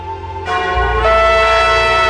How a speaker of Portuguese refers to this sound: Não, é só o sino, meu filho.